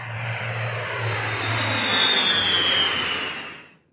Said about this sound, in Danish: Øh, og så stille og roligt øh, øh, begynder de to testpiloter så at køre ud på, øh, på landingsbanen, og hvor vi så laver take-off, ligesom et almindeligt fly vil gøre, det vil sige horisontalt.